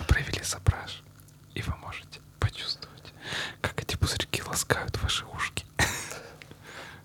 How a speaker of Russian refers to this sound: Слышите? Это пузырьки. Во флюте.